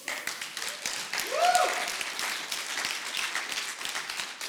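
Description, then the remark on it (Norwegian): A church audience applauds the worship singers steadily for several seconds, a dense, even patter of many hands clapping, with a brief rising whistle or cheer cutting through partway in. “Kan gi deg en applaus.”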